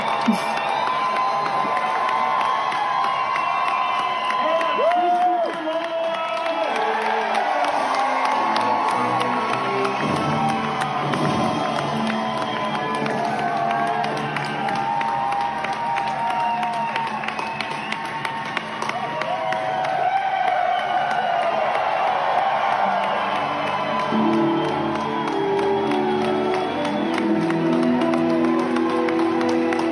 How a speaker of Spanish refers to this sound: el aplauso y la ovación que se sintió en el, pues, en el foro en donde ellos estaban